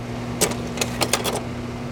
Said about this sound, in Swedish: och sen jag minns det där ljudet från den där diaapparaten, den hade ett sånt surrande och sen förstås blev den jättevarm, jag kommer ihåg den där speciella doften som kom från den där, den där manicken.